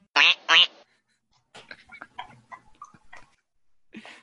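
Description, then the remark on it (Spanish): A short section intro jingle opens with two loud duck quacks in quick succession, then a pause and a patter of light, scattered tones and clicks, ending with another brief burst. “Pues si os parece, cabecera y empezamos. Intro. Batalla de patos.”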